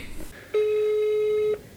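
The ringback tone of an outgoing phone call: a single steady, mid-pitched beep lasting about a second, loud and clean against a faint background hiss, with no talking.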